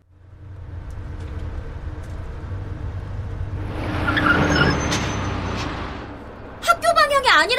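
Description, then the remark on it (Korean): A number 15 bus heading toward a wind turbine rumbles steadily, the engine noise swelling midway, then sharp high-pitched brake squeals cut in at the end as it comes to a halt at the terminus by the wind farm. “거기로 15번 버스는 향하고 있었어요.”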